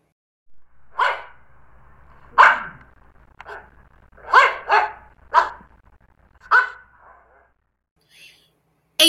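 Dogs bark in a lively, irregular series of about seven or eight sharp barks, some coming in quick pairs, with short pauses between and no talking.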